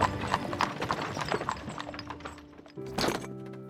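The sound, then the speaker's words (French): Hooves clip-clop in a steady, uneven rhythm as a horse-drawn carriage driven by Frédéric Larsan rolls in, the sharp knocks over a low rumble, ending with a brief burst that may be a horse's snort or whinny. “À cet instant, la voiture conduite par Frédéric Larsan arriva.”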